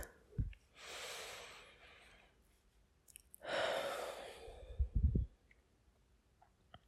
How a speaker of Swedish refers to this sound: Gud andas in ett djupt andetag.